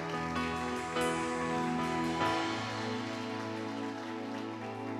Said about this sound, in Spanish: Vamos a darle un aplauso, por favor, al hermano.